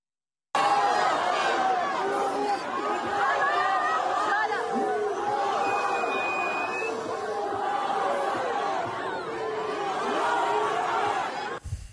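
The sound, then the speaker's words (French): A large crowd at a night rally on Place de la République chanting and shouting slogans together, including slogans against the president and against Israel, a dense, loud wall of raised voices that carries on steadily for about eleven seconds before cutting off abruptly. “Et évidemment, d'autres slogans contre le président et contre Israël étaient euh, évidemment scandés”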